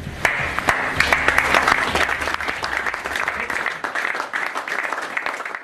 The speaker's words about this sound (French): Et les joueurs euh, t'applaudissent, s'applaudissent, euh, applaudissent euh, le, staff.